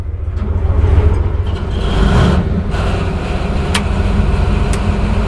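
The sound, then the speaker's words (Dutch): A Leopard 2 tank's heavy engine starts and roars loudly, a deep, continuous rumble with swelling surges of revving throughout and no voices. “Hoog tijd om plaats te nemen in die Leopard 2. Motorstart.”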